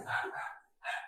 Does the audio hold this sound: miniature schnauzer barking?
yes